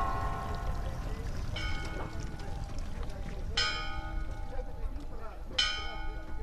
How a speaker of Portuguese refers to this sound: Até as badaladas das horas, que não batem certo em Portugal e em Espanha.